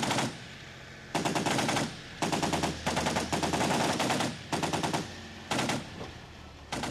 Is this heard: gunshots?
yes